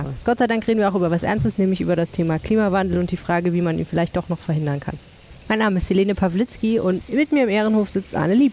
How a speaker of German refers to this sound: Und wenn ihr ein leichtes Rauschen im Hintergrund hört, dann ist es so, dass nicht so, dass wir mit Gartenschläuchen abgespritzt werden, sondern dass es die Fontäne des Brunnens hier im Innenhof vom Museum Kunstpalast ist.